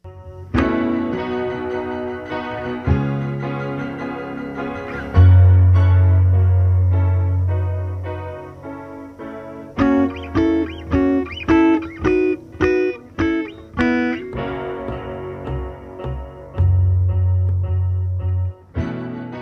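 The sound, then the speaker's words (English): A second piano in a session recording, its microphone placed far too close, plays with a gritty, distorted, close-up, bluesy tone: punchy repeated chords over sustained low bass notes, loud and upfront with no voices. “Yeah, and that second piano's got kind of some distortion on it. It's like the microphone's way too close, so it gets a cool effect.”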